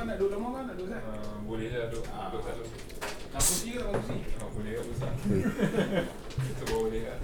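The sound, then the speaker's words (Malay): People talk throughout while a door is opened midway as someone comes in during a recording: a brief, sharp click of a doorknob turning and the latch releasing, partly masked by the voices. “Sangat profesional lah podcast kita oh, Tengah record orang masuk COD Boleh COD Bunyi dengan bunyi Pintu Tombol pintu semua ada”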